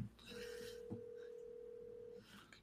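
A single steady ringback tone of an outgoing call to a friend, from a phone on speaker, holds for about two seconds, clear and moderately loud over faint background noise, then cuts off.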